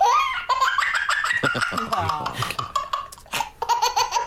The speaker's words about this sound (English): A little video from Reddit of a baby with an infectious high pitched laugh.